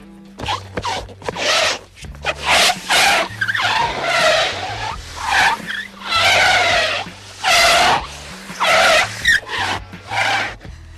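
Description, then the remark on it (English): A rubber hot water bottle squeaks across kitchen-type tiles with water poured on them, making a car-chase sound effect: a rapid series of loud, rising squeals that sound much like screeching car tyres, over a faint low hum. “This is as old as the hills, this one, and uh, every car chase you've ever heard has been a hot water bottle on kitchen tiles.”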